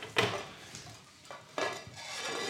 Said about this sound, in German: Dann die Pfanne voll aufs Feuer und warten, bis das äh, Fett so richtig schön Straßenzirk, sagt man. Also es muss halt einfach eine gewisse Temperatur kriegen.